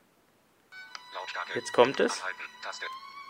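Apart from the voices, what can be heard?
music track playing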